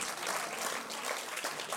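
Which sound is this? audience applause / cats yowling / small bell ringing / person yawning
audience applause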